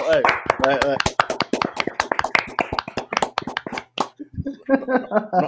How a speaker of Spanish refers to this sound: Yo sé, yo sé que ustedes saben de quién es que vamos a hablar, señores, de los famosos Uber. el, el aplauso, el aplauso para